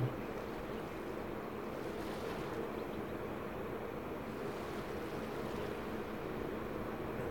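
A steady, continuous roar of rushing water from a nearby waterfall pouring into a river, heard from the riverbank in a humid setting, holding an even loudness throughout with no voices present.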